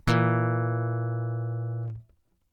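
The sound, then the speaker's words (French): A diminished fifth chord, the notes B-flat and E played together, held for about two seconds in a bright, buzzy, electronic organ-like tone, starting sharply, staying steady and loud, then cutting off abruptly. No one speaks. “Voilà pour l'accord de quinte diminuée dont j'ai déjà souvent parlé dans l'émission.”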